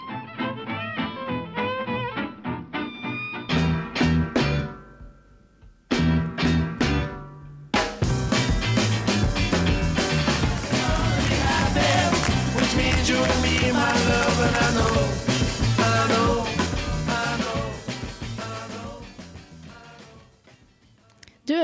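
A 1960s rock song plays loudly with driving guitars, bass and drums and a steady beat; after a brief gap near the start, the full band comes in and continues to the end.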